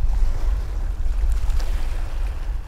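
Steady rumbling wind buffets the microphone over a constant wash of waves and engine-like low roar, out on deck aboard a blue-and-white car ferry heading back to Lerwick, Shetland, with no voices.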